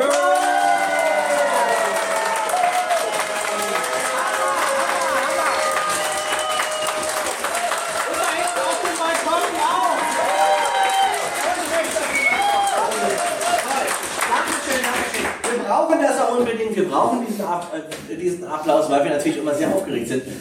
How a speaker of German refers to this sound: es sind nämlich wahnsinnig 450 Leute in Lüchow zusammengekommen für diesen Podcast. Äh, wollen wir diese Menschen einmal die, Gelegen die, die, Gelegenheit geben, dass einmal mal klatschen und mal hören, wie 450 Leute klingen.